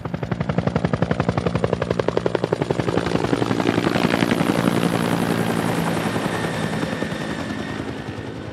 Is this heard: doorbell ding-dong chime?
no